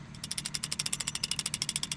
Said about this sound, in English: Upon our return to Matinicus, using a rickety winch, we'd haul the fuel barrels, each weighing about 400 pounds.